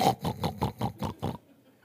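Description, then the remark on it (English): A voice mimics hogs with six quick, rhythmic grunting snorts, evenly spaced over about a second and a half, then falls silent. “she saw some hogs on the side of the road, and we had to stop and get out and let her listen to them hogs. You know how they do.”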